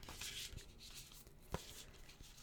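A Rose Oracle deck by Rebecca Campbell being shuffled for a card reading, a soft papery riffling with a few sharper flicks and taps, fairly quiet and with no voices.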